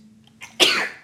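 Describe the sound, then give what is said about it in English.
A single loud sneeze: a short breathy intake followed by a sharp explosive burst that trails off quickly, with no talking around it. “sneezes like eight to ten times”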